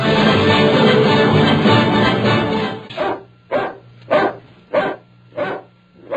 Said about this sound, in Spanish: ¿Por qué estará ladrando el perro, doña? Porque fin es escandaloso. Ya nos despertó a los dos y era como la medianoche.